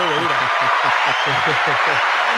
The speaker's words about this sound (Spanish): Mira, te vamos a aplaudir